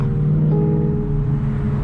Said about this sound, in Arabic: أخذت عدة جولات بتلك السيارة المزعجة وكأنها تستعيد ذكريات قديمة بين طرقاتها وأزقتها والمحال القديمة الموجودة على أطراف الحواري